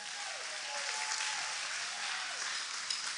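A crowd applauds steadily for about three seconds to welcome a guest onto a stage, a dense, even wash of many hands clapping at a constant moderate loudness, with a few faint cheers mixed in and no one speaking.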